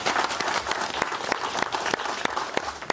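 A studio audience applauds a game show contestant who finished in sixth place, a dense wash of many hands clapping with a few sharper individual claps standing out, sustained at an even volume for the whole stretch.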